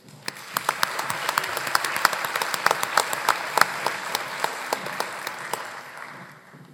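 At an awards ceremony, an audience breaks into sustained applause as a student's advisors come to the stage, many hands clapping in a dense, crackling wash with sharper individual claps standing out, holding steady for several seconds before thinning slightly at the end.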